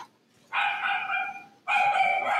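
A dog barks loudly in two drawn-out, howling cries, each lasting about a second with a brief pause between, and no one talking.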